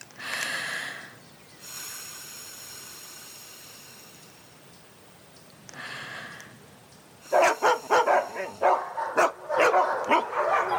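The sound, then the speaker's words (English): A thin, high-pitched dog whistle sounds steadily for a few seconds, then a burst of loud, rapid barking breaks out from more than one dog, overlapping, with no talking. “Do only dogs hear dog whistles?”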